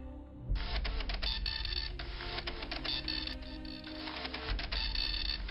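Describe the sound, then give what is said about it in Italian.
A dense, continuous mechanical clatter and whir of hundreds of obsolete printers, connected to hundreds of 1970s-era computers, running in a dark office on a seventeenth floor. Buzzing rattles fill the space steadily over a low rumbling hum underneath. “Un suono meccanico simile al ronzio di un gigantesco sciame d'api.”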